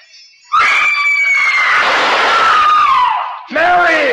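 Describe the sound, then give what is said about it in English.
A shrill, piercing scream from a woman rings out loud, sustained for about three seconds with wavering pitch, then breaks off briefly before a second strained cry starts. “That scream, high enough to shatter crystal.”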